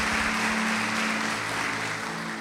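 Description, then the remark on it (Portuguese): A crowd at the Red church claps steadily throughout for the church treasurers, a dense wash of many hands at moderate loudness with a faint low hum underneath and no voices. “Uma salva de palmas para os nossos tesoureiros.”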